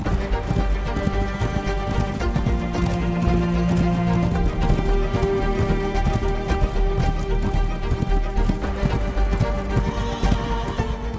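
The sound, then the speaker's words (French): A horse gallops steadily after a young prince urges it into a gallop, with rapid, rhythmic hoofbeats pounding throughout, fairly loud, with a sustained tonal backdrop and a brief whinny-like sound mixed in. “Et dans un cri, le jeune prince le lance au galop.”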